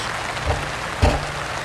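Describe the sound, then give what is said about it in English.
Steady rain hisses and patters on surfaces, a dense, even wash of sound broken by two soft, low thuds partway through. No one speaks. “Folks, I apologize for the rain.”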